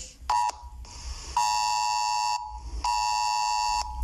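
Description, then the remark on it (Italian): A loud, harsh electronic alert tone from a contact-tracing app sounds three times, reminding the user to stay home and follow quarantine rules: a short first blip, then two longer one-second blasts with a buzzy, high-pitched ring and no one talking. “La cosa più strana è che circa due volte al giorno ricevo un segnale sonoro molto forte, quasi inquietante, eh, da, dall'app di tracciamento che mi ricorda di stare a casa, di non vedere nessuno e di seguire le regole eh, della quarantena.”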